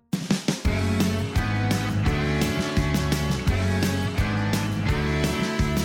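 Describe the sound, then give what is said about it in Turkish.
A clarinet plays a lively, ornamented melody, a piece from Turkish clarinetist Mustafa Kandıralı of the kind played on bayram (holiday) mornings, over a steady rhythmic accompaniment of low plucked or percussive beats, loud, with no voices. “Ondan bir şey çalayım size. Hani bayram sabahlarında çalar.”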